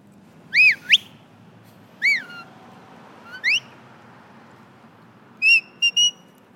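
A series of sharp sheepdog herding whistles directing a working border collie on sheep at the National Sheepdog Finals, clear and fairly loud, in short bursts: rising and falling trills, a quick upward sweep, then a final pair of steady blasts, over faint outdoor background noise.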